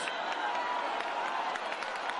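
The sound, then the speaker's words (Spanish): A crowd applauds steadily at the sanctuary of the Virgen del Rocío as the Simpecado of the parish arrives, 2:49 on Pentecost Monday. Many hands clap in a dense, continuous wash with occasional sharper claps standing out, fairly loud throughout with a faint murmur of voices mixed in. “Y el aplauso, el aplauso que evidencia que en efecto ya está llegando el sin pecado de la matriz se zarandea bajo el dintel y se abre el pasillo para que entre cuando se produce el salto de la reja, 2 y 49 del lunes de Pentecostés”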